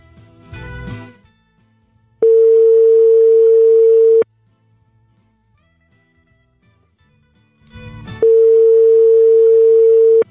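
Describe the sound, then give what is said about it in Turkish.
A steady, loud phone ringback tone sounds twice as a phone call is placed, each burst lasting about two seconds with a long quiet pause between, and a brief handling thump comes just before each ring. “Heh, tamam şimdi çalıyor dur.”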